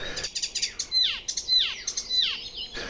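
A small migratory songbird sings in bushes, a lively, varied phrase of quick chirps and descending whistled notes, repeated several times in a fast rhythm, clear with no voices.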